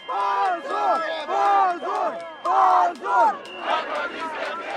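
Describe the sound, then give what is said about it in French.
A large crowd of protesters at a demonstration in Russia, calling for the release of a jailed man, chants in rhythmic unison, loud, with repeated shouted phrases rising and falling in regular bursts. “Mais deux jours plus tard, alors qu'il est toujours en prison, des manifestations sont organisées en Russie pour réclamer sa libération.”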